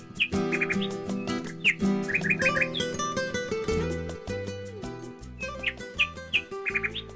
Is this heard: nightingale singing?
yes